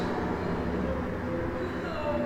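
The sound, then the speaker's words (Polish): A tram rumbles along a city street, a steady mechanical drone with faint metallic whine over continuous traffic ambience and a passing car, holding at an even loudness throughout. “Słuchać jakieś tramwaje.”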